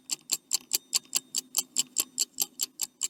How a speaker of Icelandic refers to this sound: Við ætlum að spyrja þau 6 spurninga og þau hafa hálfa mínúti til að svara hverju spurningu. Og meðan þau svara gengur svona klukka